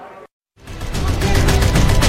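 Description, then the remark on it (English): After a brief moment of silence, loud gunfire from the video game Medal of Honor Warfighter by Electronic Arts erupts in a dense, rapid stream of shots over a heavy, booming low rumble like explosions, with no one speaking. “You're in their eyes as they sprint through dangerous terrain, dodge explosions gun down their enemies.”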